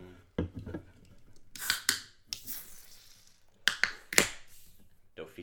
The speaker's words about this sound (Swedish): Eh, ska vi öppna en till öl och sen kör vi?